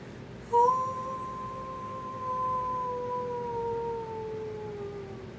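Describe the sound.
A person imitates a wolf howl: one long, steady, slightly falling tone held for about five seconds, clear over a low background hum, with no talking.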